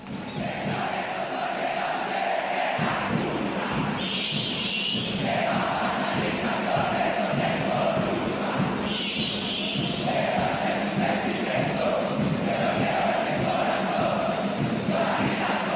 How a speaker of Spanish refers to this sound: Bueno, yo no te voy a decir, a ver si vos podés afinar tu oído y escuchando solo el canto de la hinchada te puedes dar cuenta qué tema están cantando.